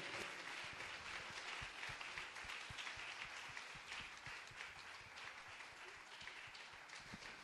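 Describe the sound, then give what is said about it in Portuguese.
An audience at an evening church service applauds Jesus while welcoming the evangelist who will bring the message, a dense wash of many hands clapping at an even level throughout with no voices standing out. “Vamos receber o servo do Senhor, aplaudindo a Jesus mais uma vez.”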